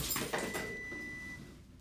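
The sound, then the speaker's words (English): A cup tips over with a couple of quick clattering knocks, followed by a thin, high ringing tone that lingers for about a second before fading out. No one speaks. “Oh, a cup fell over.”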